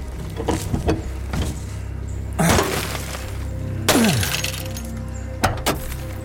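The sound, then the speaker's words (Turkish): The window of a locked car is smashed in a few loud blows, each a sharp crash of breaking glass, separated by pauses over a low steady rumble. “Dur bir dakika dur şu camı kıralım.”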